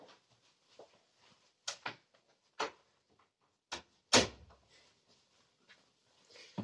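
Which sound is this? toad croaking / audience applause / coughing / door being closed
door being closed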